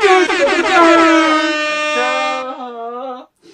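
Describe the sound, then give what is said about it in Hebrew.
A loud, blaring air horn blast in the trap style sounds on its own for about three seconds, wavering at first, then holding steady before cutting off, followed by one short final honk. “להכניס כאן בעריכה אה, סאונד של צופרים כאלה של טראפ.”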